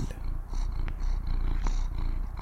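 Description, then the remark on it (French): A cat purrs steadily, a low rumbling vibration pulsing in a continuous rhythm throughout, with no voices present. “L'animal est encore craintif avec les inconnus, mais il est devenu hyper câlin avec elle.”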